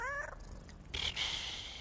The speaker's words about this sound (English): Purr, said Blackie. And that was her way of saying that she, too, was happy.